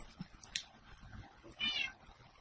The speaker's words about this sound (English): I hear cat. That's what I'm hearing.